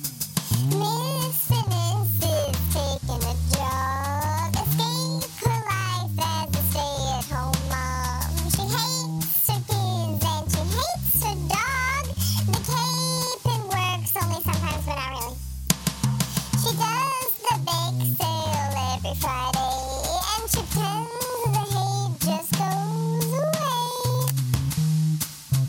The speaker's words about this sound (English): That last song you heard